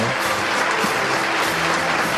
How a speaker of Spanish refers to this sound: Y el aplauso se hace más, fuerte.